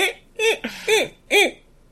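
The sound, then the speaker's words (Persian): A human voice imitates a monkey with a quick run of four or five rising-and-falling hooting calls, loud, with short gaps between them and no other sounds. “ولی سوالی که دارم از بچه های طرفدار اینترنی که صدای میمون رو چجوری در میاری احتمال اینجوری نیست”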